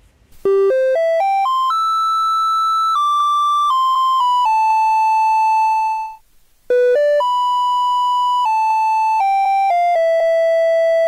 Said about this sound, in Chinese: 好，那大家一定很好奇，嗯，为什么台湾的垃圾车要放音乐呢？